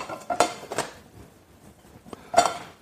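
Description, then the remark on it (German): A frying pan is handled on a stovetop as it preheats: three sharp metallic clanks and knocks, fairly loud, with quiet pauses in between and no talking. “Pfanne heizt vor.”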